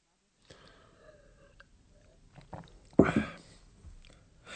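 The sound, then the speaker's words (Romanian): A drink of beer is sipped: faint mouth sounds, then one short, loud gulping slurp, followed by a softer swallow and quiet breathing. “Dr. Turman bea mai întâi o înghițitură de bere, apoi îl întreabă pe Andreas.”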